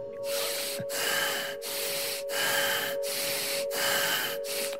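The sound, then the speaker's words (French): Deep, fast, rasping breaths repeat in a steady rhythm, about six harsh noisy inhale-exhale bursts with brief gaps between them and a faint steady hum underneath. “Deep and fast, rasping breath, deep and fast.”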